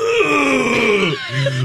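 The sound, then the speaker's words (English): A voice in a radio studio imitates a long, drawn-out groaning moan like someone in a huge stretch, sliding downward in pitch, then a brief lower grunt at the end, loud. “takes this ginormous stretch. And in the studio, it sounds like this.”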